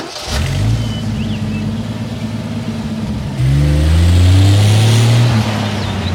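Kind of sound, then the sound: vehicle, car driving off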